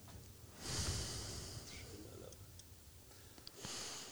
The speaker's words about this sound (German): Und wir atmen gemeinsam ein. Und wir atmen gemeinsam wieder aus.